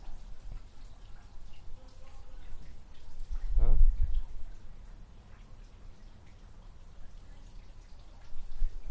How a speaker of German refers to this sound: Also der Springbrunnen ist ungefähr gut schätzungsweise sieben Meter von uns entfernt, was man da so gut hören kann.